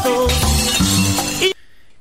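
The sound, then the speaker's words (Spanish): A loud crash of glass shattering, with bright, ringing shards tumbling for about a second and a half before cutting off abruptly into near silence. “se quebró un vidrio o qué fue? No, es el corazón.”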